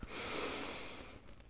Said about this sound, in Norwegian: Fyll deg med liv, og pust ut. Og kvitt deg med alt du ikke trenger lenger. Og vi er rause med oss sjøl eh, akkurat nå, så jeg inviterer deg enda en gang til å gi deg et godt pust.